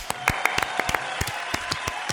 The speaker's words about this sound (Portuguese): Palmas. Aplausos.